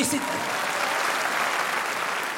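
A crowd claps steadily for a couple of seconds, a dense, even wash of applause at a constant level.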